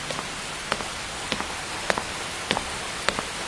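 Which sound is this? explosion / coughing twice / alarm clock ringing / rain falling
rain falling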